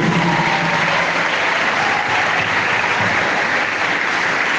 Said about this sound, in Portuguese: E quero pedir a todos nós uma salva de palmas de boas-vindas a esses alunos do primeiro ano